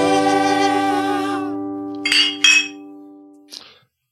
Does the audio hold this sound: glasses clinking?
yes